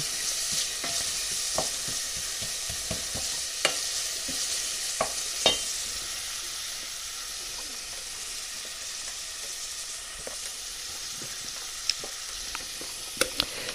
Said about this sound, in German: So. Feuer. Ein bisschen runter. So. Ihr hört, es raschelt. Dann Schneebesen. Ne, nicht ein Schneebesen, Holzlöffel. So, Zwiebeln müssen wir natürlich wieder angehen lassen, ist klar.